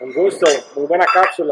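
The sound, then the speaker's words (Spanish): A couple of light glass clinks, like a toast, ring out under steady conversation as people keep talking over them. “Bueno, no, salud. Bueno. Salud.”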